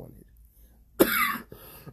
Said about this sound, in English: this cough. I'm sorry.